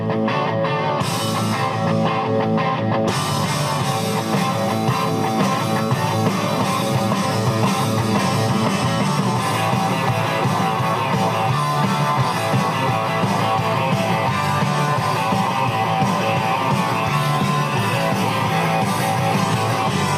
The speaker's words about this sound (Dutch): Ik ga je veel muziek laten horen. Deze … was de opener. … mag er ook zijn. Luister even.